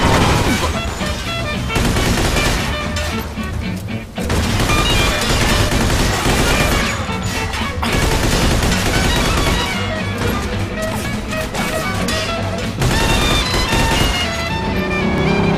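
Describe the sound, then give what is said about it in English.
Loud, sustained bursts of Tommy gun fire, shot out of the windows of cars screeching around corners, rattle almost without pause, a dense chatter of rapid shots layered over a constant roar. “you know, the cars screeching around the corner with the smoke coming off the tyres, guys shooting out of the windows with Tommy guns.”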